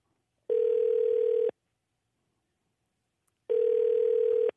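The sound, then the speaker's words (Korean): A telephone line tone as a radio host places a call to a listener: two steady, mid-pitched electronic beeps, each about a second long, separated by a couple of seconds of silence, with no one speaking. “마지막으로 전화 한번 걸어보겠습니다.”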